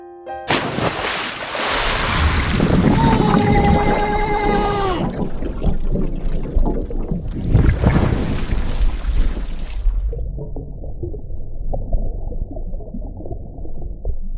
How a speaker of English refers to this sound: there's heavy piano and then a loud splash and then gurgling and then sounds like somebody drowning and underwater they're yelling